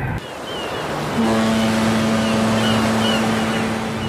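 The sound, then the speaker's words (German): Steady rumbling road noise inside a moving car driving back from a film shoot on the Baltic Sea coast, with a droning engine hum that rises in pitch and holds after about a second, continuous and fairly loud throughout, no voices. “Also im Prinzip sind wir jetzt gerade auf dem Rückweg äh, von dem Dreh Sand, den wir gerade an der Ostsee hatten. Und wir haben im Auto heute bei uns”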